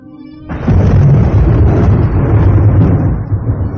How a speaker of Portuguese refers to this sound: uma tempestade aterradora começa a escurecer rapidamente o céu da cidade transformando a atmosfera num cenário de terror e pânico para o assassino da escrava.